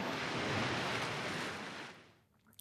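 ocean waves

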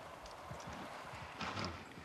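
horse hooves clip-clopping

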